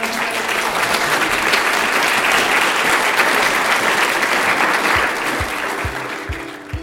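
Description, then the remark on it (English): A sustained round of audience applause thanking panelists, dense and steady and loud, fading slightly toward the end with a few low thumps. “So please join me now and thank my panelists.”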